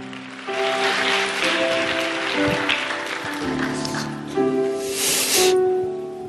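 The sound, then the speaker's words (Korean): Sustained audience applause welcoming a pastor at a church worship service, a dense crackle of many hands clapping that starts after a brief pause and swells toward the end, with steady held musical tones underneath. “따뜻한 박수로 맞아주시기 바랍니다.”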